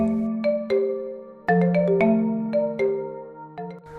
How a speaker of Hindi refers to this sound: रात को ढाई बजे शशिकांत के मोबाइल की घंटी बजी